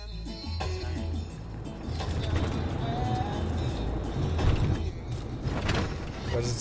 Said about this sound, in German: Wir sitzen im Auto. Vor dem Fenster zieht die schwedische Vorstadt vorbei. Schneematsch und graue Reihenhäuser.